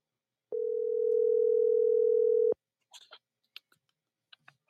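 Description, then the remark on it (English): A telephone ringback tone sounds once, a steady, fairly loud electronic purr lasting about two seconds, then cuts off, leaving scattered faint clicks and rustling. “hold on, let me just get her on the line real quick.”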